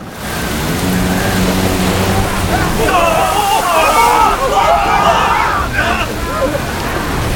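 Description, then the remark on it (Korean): A violent rainstorm at sea strikes a ship sailing near Seokseong Island off the Liaodong coast: a loud, continuous roar of pounding rain and churning, sloshing waves, with voices briefly rising over the storm's noise midway through. “거센 폭풍우가 몰아쳤고 이민성이 탄제 3호선이 풍파에 휩쓸렸다.”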